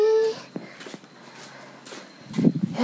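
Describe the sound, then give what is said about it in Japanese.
A cat, Conan, lets out a short, tonal meow right at the start, clear, followed by quiet shuffling and faint movement noises with a brief louder rustle near the end. “今日かなさんが来たからそんなにニャーニャー言わないかと思った言ってくれるのね私ってわかるのね”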